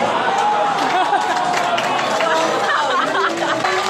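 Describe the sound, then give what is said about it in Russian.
A large audience in a hall murmurs and chatters indignantly all at once after a prize draw, a steady dense babble of many overlapping voices, with no single speaker standing out. “Вы слышите это негодование во всем зале, в атмосфере?”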